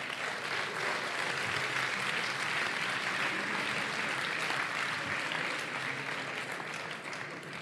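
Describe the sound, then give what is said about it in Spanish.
Sustained applause from a crowd at the Evox awards for the nominees in the leisure category, a steady dense wash of many hands clapping at an even loudness for several seconds, with no voices standing out. “Un aplauso Un para aplauso.”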